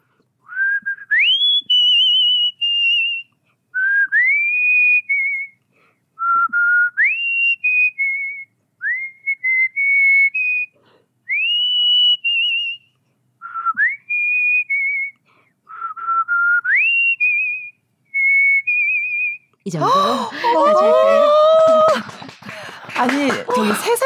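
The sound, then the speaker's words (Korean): A person whistles a song melody in clear, tonal phrases with rising slides and held notes, repeated about eight times, then the tune gives way to laughter and chatter at the end. “원래 노래를 잘하신다고 나 휘파람을 잘 부르는 건 아닌 아니죠, 거죠?”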